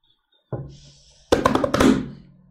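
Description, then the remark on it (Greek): A pen taps against a hard surface: one dull knock, then a quick flurry of several sharp, clicky taps in close succession, fairly loud, with no voices. “Κάνει κάτι με το στυλό. Λένε εδώ αυτό που κάνει με το στυλό, λέει το κάνει και ανάποδα.”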